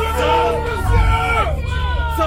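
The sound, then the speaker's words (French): A large, agitated crowd of nearly 500 men and women rushing toward a door shouts and clamors all at once, many raised voices overlapping into a loud, continuous roar with a heavy low rumble underneath. “La foule augmentait. Toujours près de 500 hommes et femmes se ruaient vers la porte.”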